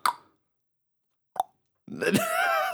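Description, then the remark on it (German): A voice imitates a door clicking shut with two short mouth pops about a second apart, then breaks into a longer, drawn-out voiced sound. “Die meisten Türen machen noch mehr Klick beim Zugehen.”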